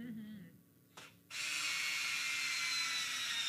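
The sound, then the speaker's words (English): A cordless drill briefly spins up, then runs steadily and loudly for a couple of seconds, a continuous whirring whine as it drives a screw into wood. “Now, when I go to put the screw in, it's going to be a little bit easier. It starts faster.”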